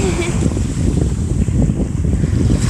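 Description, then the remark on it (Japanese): Steady rushing surf washes in along the shore, a continuous low roar with gusty wind buffeting the microphone, and no one speaking. “波の音すき”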